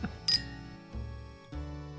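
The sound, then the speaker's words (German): A single bright clink of wine glasses touching rings out early, leaving a short high ringing tone, followed by a couple of duller knocks over a steady low humming background. “Also, aber ein Glas Wein haben wir uns trotzdem gegönnt.”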